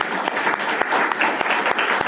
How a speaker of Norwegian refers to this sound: Så det, det syns jeg vi skal gi en liten applaus for.